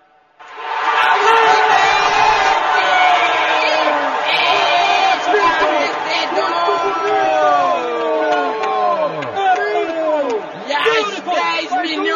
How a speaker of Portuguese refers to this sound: pessoas presentes gritam, oh que coisa boa! Oh, que coisa boa!